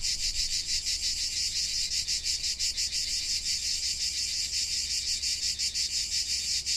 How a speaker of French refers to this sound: Pour cela, revenez simplement au chant des cigales et à votre respiration.